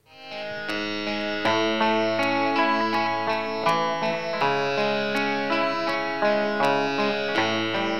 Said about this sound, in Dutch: Het gaat me hier vooral om het feit dat dat, dat is take 1. Hè. Je hebt een gitaar en een klavecimbal. Hoe, hoe spelen die dat perfect tezamen over elk nootje is nagedacht.